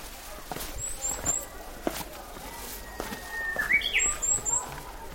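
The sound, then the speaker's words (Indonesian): Birds chirp and sing outdoors in two short clusters of quick, high-pitched tweets as flower blossoms drift down on the wind, over a steady outdoor background with a few soft taps like footsteps. “Mendengar kicauan burung yang sulit terdengar di pusat kota Seoul, ditambah hujan bunga yang berhembus,”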